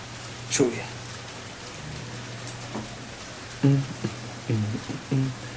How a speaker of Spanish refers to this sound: Ah, se empieza empezó a llover. Bueno, empieza la transmisión con, con lluvia, Sí, con ruido de lluvia de fondo. No sé si se escuchará, pero.